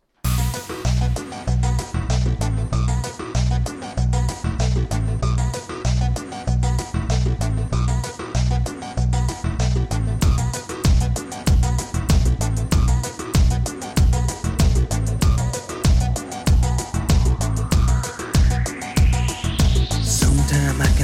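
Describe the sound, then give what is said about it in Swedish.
A song plays with a loud, steady driving beat and dense layered instrumentation, no singing yet, and a rising synth sweep building toward the end. “Nu lyssnar vi på en låt.”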